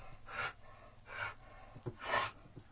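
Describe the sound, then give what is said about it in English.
A dog breathes heavily behind the speaker, three slow, loud, rasping breaths spaced about a second apart, with a faint low hum underneath and no talking. “Um, here, let's uh, turn the sound down so my dog can breathe heavily behind me.”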